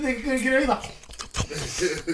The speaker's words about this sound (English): he was trying to chew it quickly.